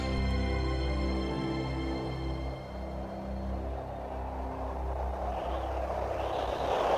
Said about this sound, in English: The music fades out while we're still looking at the airplane in the clouds. The music fades away, and we hear a little bit of just the airplane noise of the wind and the propeller.